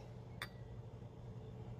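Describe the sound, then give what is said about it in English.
Two green goblets clink together once in a toast, a bright, short glassy ring near the start that fades quickly, followed by a steady low background hum with no talking. “Um, we got our green goblets and cheers.”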